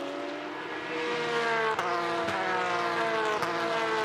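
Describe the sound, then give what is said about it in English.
Porsche Carrera Cup race cars, a train of five or six cars battling for position, scream past on the track at Indianapolis in 2023, their high-revving engines droning loudly, with a few sharp gear-change breaks as the pitch shifts and the pack sweeps by. “Porsche Carrera Cup North America 2023: Indianapolis race 1”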